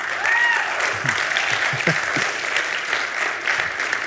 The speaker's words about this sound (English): He is amazing at doing this. Since he's, yeah, clap for him.